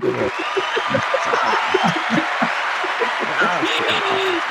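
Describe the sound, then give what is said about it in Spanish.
A crowd applauds in a steady, continuous wash of clapping, with voices and a few shouts or chatter mixed in over the top throughout. “otro Aplauso, otro aplauso, otro aplauso,”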